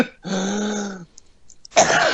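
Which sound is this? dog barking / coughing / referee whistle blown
coughing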